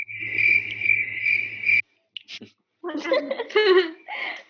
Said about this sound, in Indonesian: Suara jangkrik.